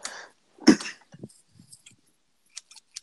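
A few sharp metallic snips of a pair of electric blue stainless steel scissors, marked China on the blade, opening and closing, with a muffled rustle of handling before them. Short, crisp clicks come in a loose sequence near the end.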